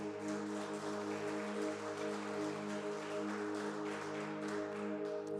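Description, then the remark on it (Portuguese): An audience applauds the Lord Jesus loudly and steadily, a dense crackle of many hands clapping for several seconds while a sustained keyboard chord hums underneath. No one speaks. “E se você crê nisso, aplauda ao Senhor Jesus bem alto.”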